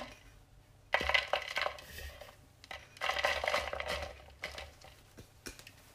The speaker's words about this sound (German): Jetzt zerbröseln wir einen halben Würfel Hefe in einer in eine Rührschüssel.